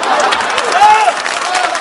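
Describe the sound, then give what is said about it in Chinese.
A crowd applauds with steady, dense clapping that fills the whole two seconds, a brief high tone and some voices mixed into the noise. “这鼓掌的都旅游过。”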